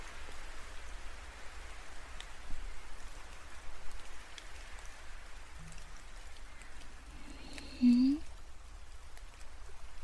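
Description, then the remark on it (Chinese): Steady, gentle sun-shower rain patters continuously in a soft hiss of droplets, with a short rising tone briefly cutting through near the end. “这是太阳雨吗？”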